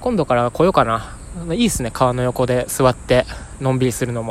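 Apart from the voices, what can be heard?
cicadas buzzing outdoors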